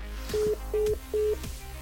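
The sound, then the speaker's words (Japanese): A phone call ends as the telephone is hung up: three short, evenly spaced electronic beeps of the disconnect tone, clear, with faint clicks and no voices. “続きの言葉を聞く前に私は電話を切った”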